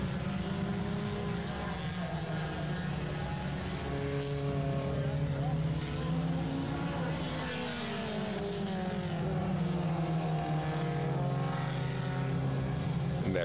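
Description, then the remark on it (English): Four-cylinder race cars scream around a track, their engines loud and continuous, pitch rising and dropping as several cars whip past one after another. “Little four cylinders.”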